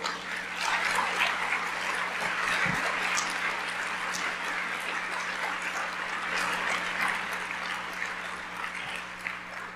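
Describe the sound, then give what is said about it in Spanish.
A crowd applauds for the Lord steadily for about ten seconds, a dense, even wash of clapping that holds at the same loudness throughout, with a few voices faintly mixed in. “Es para darle un aplauso al Señor, ¿no?”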